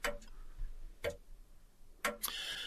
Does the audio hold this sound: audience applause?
no